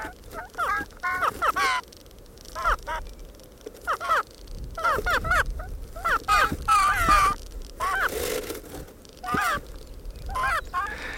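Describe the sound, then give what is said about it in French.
Two bird parents trade harsh, raspy calls and low moaning notes in an overlapping duet, recorded after their usual changeover time: a steady back-and-forth of fairly loud, throaty calls repeating throughout with no speech. “Les deux parents émettent à peu près le même nombre d'appels et de gémissements”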